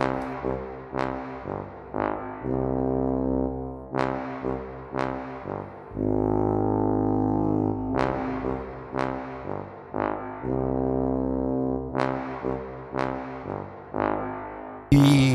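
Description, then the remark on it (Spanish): A deep, resonant orchestral tuba plays a slow melody of sustained low notes with soft attacks and rich brassy harmonics, heard alone. “La tuba propiamente dicha, la tuba eh, de eh, la orquesta, suena más o menos así.”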